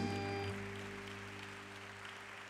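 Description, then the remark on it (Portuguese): A church audience applauds the Lord steadily, a dense wash of clapping over a low sustained hum, with a faint tone fading out in the first half-second. “E se você pode, dá um lindo aplauso ao Senhor.”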